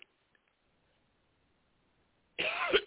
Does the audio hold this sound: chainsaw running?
no